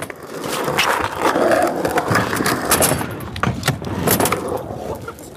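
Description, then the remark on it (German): Skateboards roll and clatter across a skatepark, a steady rumbling of wheels broken by sharp clicks and scraping impacts as boards hit the ground, with faint voices in the background. “Zurück in der Skateboardanlage.”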